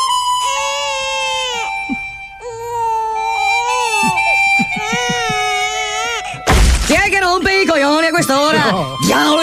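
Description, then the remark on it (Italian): Loud, wailing crying of an abandoned baby outside an orphanage on a very cold evening, with long sustained pitched cries that rise and fall, growing harsher and more broken in the second half, intense. “un forte pianto proveniente dall'esterno colpì tutti gli abitanti dell'orfanotrofio.”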